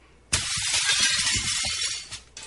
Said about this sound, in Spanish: las molduras se desprenden, las puertas y las ventanas se rompen, hasta los cristales se caen a pedazos.